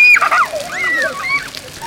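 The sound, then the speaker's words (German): Small water fountains shoot up from the ground around pavilions, splashing and spraying steadily, with children playing in them, their high-pitched voices and shrieks rising over it throughout. “Rundherum um die Pavillons gibt es kleine Wasserfontänen, die aus dem Boden schießen und Kinder zum Spielen einladen.”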